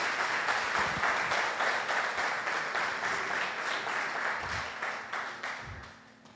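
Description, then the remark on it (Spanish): A crowd applauds a family steadily, dense overlapping claps at a fairly loud level before gradually tapering off toward the end. “Démosles un aplauso a esta hermosa familia.”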